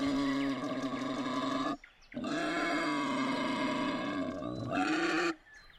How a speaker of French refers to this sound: Ça, c'est le bruit euh, que font les sangliers qui rôdent euh, à la fois en bas de l'immeuble et dans la cour de l'immeuble